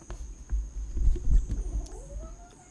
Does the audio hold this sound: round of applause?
no